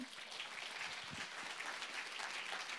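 Sustained applause from an audience, a dense steady clatter of many hands clapping at an even level for a few seconds, with no voices standing out.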